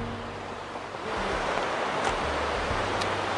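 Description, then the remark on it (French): A waterfall roars in a continuous, steady hiss of rushing water, filling the scene without pause and swelling slightly after the first second, with no voices present. “Là, comme on est sur la cascade, je vais me mettre en paysage.”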